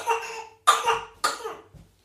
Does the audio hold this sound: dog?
no